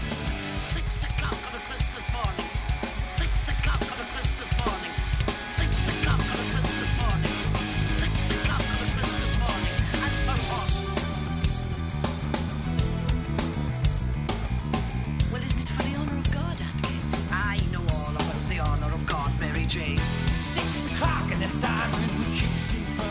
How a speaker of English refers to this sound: So you hear that drum. It's, a, mm-hmm. it's a bit more groovy than what you'd hear on ….